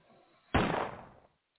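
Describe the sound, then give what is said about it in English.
A single sharp gunshot sound effect: a sudden loud bang with a booming, noisy tail that fades out over about three-quarters of a second, then silence. “That was gun gunshot bullet.”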